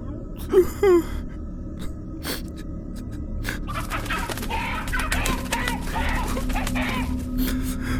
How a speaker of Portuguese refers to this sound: o frango a bater as suas asas, cacarejando assustado.